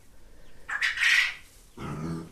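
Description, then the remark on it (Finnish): A chicken calls out with a harsh, raspy squawk, followed by a lower, throatier cluck. It's fairly clear, with no one talking. “Oliko toi kanan ääni? Se oli kanan ääni.”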